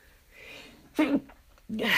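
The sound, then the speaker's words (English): A soft, breathy intake of air followed by two sharp, forceful bursts of a sneeze, loud, with no talking. “I'm gonna sneeze”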